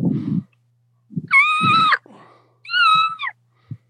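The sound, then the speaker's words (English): Two short, high-pitched squeaky notes from a diaphragm turkey call held against the roof of the mouth with pressure at the top, fairly loud, each slightly wavering, separated by a pause and surrounded by soft low breathy thumps. “put pressure of it up around the roof of your mouth and it's, and get that sound or that call just lays up there and you just put pressure at the top, and this is just just getting a sound out.”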